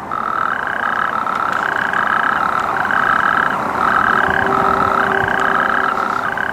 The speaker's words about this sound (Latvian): No krupjiem temīt smilšu krupis, rec un aizsargājams dzīvnieks, grumbainu ādu un pāri mugurkaulam tam iet dzeltenīga svītra. Un tāda ir viņa dziesma. Dziesma skan, nu no tā kā jūs gribat uzgriezt to ot vecu pulksteni. Un te ir oriģināls.